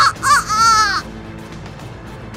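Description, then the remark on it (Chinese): A man's voice imitates a rooster crowing: a short rising yelp, then a longer, high, wavering call lasting about a second, shouted toward the sky at midnight at the Hangu Pass. It breaks off abruptly, leaving a low, quiet murmur. “他的声音听起来就像是公鸡在叫。”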